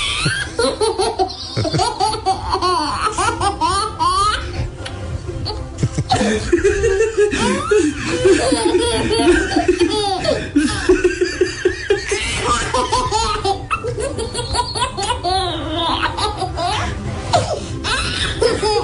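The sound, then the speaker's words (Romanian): A baby laughs in repeated bursts of giggles and squeals, fairly loud, with a steady background hum underneath throughout. “Hai să vedem, mai să începem cu da. bebeluș.”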